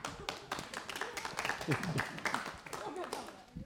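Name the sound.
audience clapping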